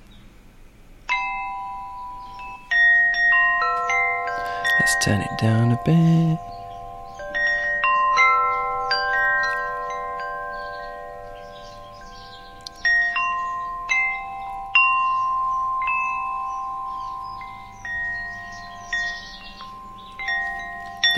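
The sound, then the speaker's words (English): Wind chimes ring continuously in overlapping, sustained metallic tones over a soft, steady watery hiss like a babbling brook, played by an Amazon Alexa skill called Wind Chimes Babbling Brook. A voice briefly speaks near the start. “It's called Wind Chimes Babbling Brook”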